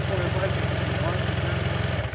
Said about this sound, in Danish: Vi prøver, vi prøver at køre det nu, så ser vi. Min motorcykel er helt ny og fin.